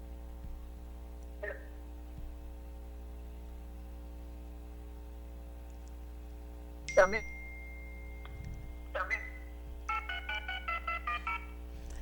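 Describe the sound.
A quick series of about seven evenly spaced telephone keypad tones near the end, following a few scattered clicks and beeps, all over a steady electrical hum and faint background voices. Someone dials a phone call to a woman to reconnect her with better quality because the signal keeps freezing.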